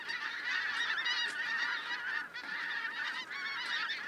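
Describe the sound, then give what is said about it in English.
A dense chorus of geese honking continuously, many overlapping calls from a large flock, steady and loud throughout with no pauses. “I haven't been able to go and record The Heaven Hounds for you, but due to the magic of Peter Rogers and his production, you can hear the sound of them now.”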